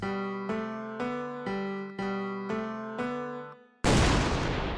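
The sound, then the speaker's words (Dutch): A cannon boom bursts in loudly and roars on to the end, following a run of evenly spaced, droning musical notes. No one speaks. “het kanon, laat het maar bulderen.”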